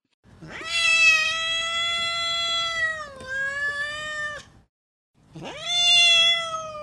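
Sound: cat meowing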